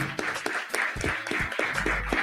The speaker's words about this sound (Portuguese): Uma salva de palmas aí de novo para Raquel Trindade.